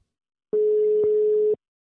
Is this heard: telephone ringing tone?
yes